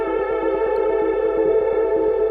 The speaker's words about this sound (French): Alors, du coup, j'ai fait un live avec une pédale de reverb.